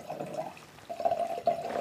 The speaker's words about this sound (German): Und das ist jetzt ein, wie man schon am Einschenken hört, ein Rotwein. Ja, der war deutlich dunkler, ne? Der Hall. Der Hall war dunkler. Ähm, ja, Toskana. Toskana Rosso.